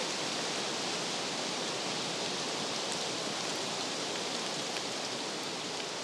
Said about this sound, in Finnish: Kovasti tuulee ja lehti lentää